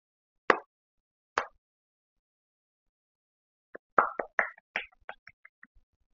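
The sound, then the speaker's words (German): Two sharp, separate hand claps, followed after a pause by a quick, uneven flurry of about a dozen lighter claps that fades out. No one speaks. “Klatsche gerade, merkt ihr?”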